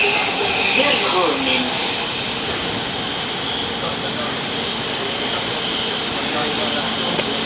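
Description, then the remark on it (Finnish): A metro train rumbles steadily through a tunnel beneath the Gulf of Finland, heading to Koivusaari station, the deepest below sea level. A dense continuous roar with a faint tonal whine runs throughout, while a voice is briefly audible beneath the noise near the start. “Aika hurja ajatus ajatella, että tuossa velloo meri päällämme ja me täällä matkustamme metrotunnelissa.”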